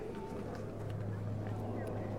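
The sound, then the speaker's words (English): An aeroplane flies overhead above Butchart Gardens, its low, steady engine drone rumbling continuously and fairly loudly, with a constant deep hum that never fades throughout. “Above our heads, the aeroplanes. I tried to avoid them by when recording this coverage, but it seems to be impossible.”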